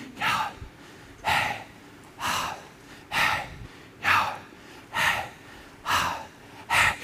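Slow, deliberate breathing into the mic: eight or so airy, breathy breaths in and out at a steady rhythm, each lasting about half a second, with quiet pauses between them and no talking.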